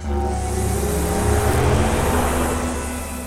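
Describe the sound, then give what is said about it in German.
The E-Tron electric car's synthetic driving sound, built partly from recordings of a lawn trimmer, a cordless screwdriver and a struck guitar: a steady, layered electronic hum with a deep drone and higher tonal whines, swelling slightly midway and easing off over about three seconds, with no talking. “Der Klang eines Rasentrimmers ist dabei nicht das einzige Werkzeug, das im Sound des E-Tron steckt, sagt Stefan Xell.”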